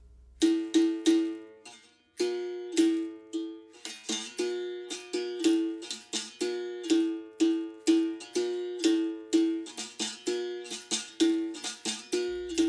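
A médio berimbau, the mid-pitched capoeira musical bow, plays alone, its twangy metallic strikes repeating in a steady capoeira rhythm, alternating between two pitches with brief pauses and a buzzy, ringing tone.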